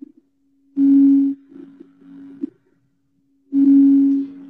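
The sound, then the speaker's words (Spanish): A steady, humming tone from singing bowls resonates throughout during a guided meditation, swelling twice into loud, buzzing surges, then settling back into a soft sustained drone. “Vamos a conectar con la respiración, con el sonido de los cuencos”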